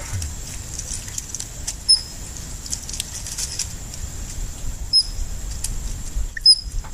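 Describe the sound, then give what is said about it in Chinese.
A Eurasian otter pup calls for its mother with three brief, high, whistle-like peeps spaced a few seconds apart, heard over a steady background hiss and low rumble. “这个是幼他在叫妈妈的声音， 哦，小 baby 在叫妈妈。”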